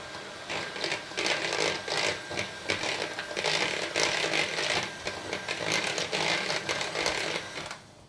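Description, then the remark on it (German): An electric hand mixer whirs steadily for a few seconds, briefly stirring melted couverture chocolate and melted butter into an egg mixture in a bowl, a continuous buzzing motor with rhythmic surges as the beaters move, with no talking. “Und dann wird noch einmal ganz kurz mit dem Mixer die Kuvertüre und die Butter, die aufgelöste, untergerührt.”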